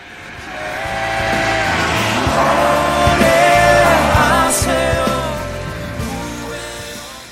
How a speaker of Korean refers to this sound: 지금 차를 타고 지나간 거예요. 네. 옆차에서 음악 소리가 들렸어요. 과연 무슨 노래를 듣고 있을지 들어볼까요?